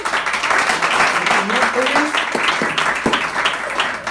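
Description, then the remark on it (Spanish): A church audience claps steadily throughout to greet a visiting man, a dense, sustained wash of many hands, with a faint voice briefly audible beneath it. “saludamos con un aplauso.”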